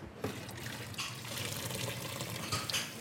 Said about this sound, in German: Er nimmt den großen Topf mit den gekochten Salzkartoffeln und gießt das Wasser vorsichtig ab. Lass aber noch einen halben Liter Wasser drinnen.